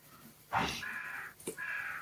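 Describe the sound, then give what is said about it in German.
A raven caws outside the window, two harsh, raspy calls in quick succession, the first longer and the second shorter after a brief gap, moderately loud with no voices over them. “Ich glaube, ich mache das Fenster zu, weil die hier Rabe rumkräht.”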